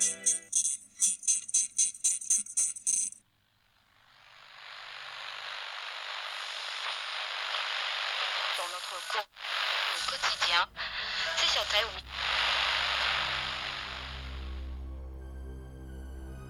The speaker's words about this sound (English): Located on the edges of your radio static, you've stumbled upon the lost signal.